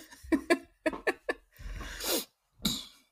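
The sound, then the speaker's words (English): A fairly loud fit of coughing and throat-clearing: a few short harsh bursts, then a longer raspy hack, followed after a brief pause by one final cough. “Hang on, let me go cough.”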